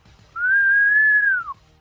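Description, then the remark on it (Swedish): A single sustained human whistle at the Jägersro racetrack holds one steady, fairly high pitch for about a second, then glides downward at the end. It is clear, with no talking. “Och det var en härlig vissling.”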